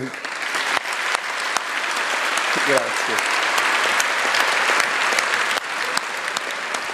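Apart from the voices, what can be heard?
long applause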